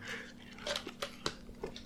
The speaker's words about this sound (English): sorry, let me chew this ice. Chew it.